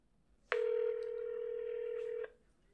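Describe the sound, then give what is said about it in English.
As a phone call is placed, a single steady electronic telephone tone sounds for nearly two seconds, loud, then cuts off abruptly. No one speaks. “Let me call her and see if she will answer the phone for your boy.”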